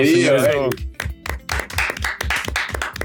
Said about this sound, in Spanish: Aplausos, aplausos.